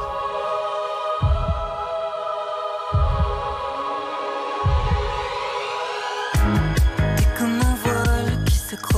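A pop song played on RTL radio opens with a sustained synth drone and slow, deep thumps like a heartbeat every couple of seconds, then the full beat and band kick in loudly near the end.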